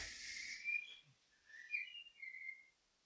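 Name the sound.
birdsong in the background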